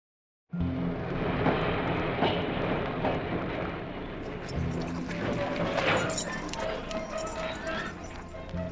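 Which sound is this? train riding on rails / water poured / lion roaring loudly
train riding on rails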